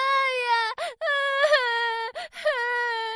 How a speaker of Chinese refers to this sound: 紧接着，一道小小的哭声也响了起来。